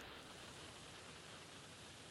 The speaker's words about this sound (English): I hear a lot of static.